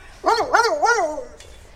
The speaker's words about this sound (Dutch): En er komt nog een hond aan. Ik weet niet of je het geblaf op de achtergrond kan horen.